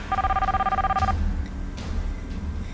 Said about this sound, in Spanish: estaba a punto de conciliar el sueño esa noche cuando el timbre de su teléfono celular le hizo saltar de la cama.